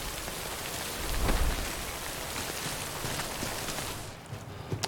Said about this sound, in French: Could wait out the rain over there.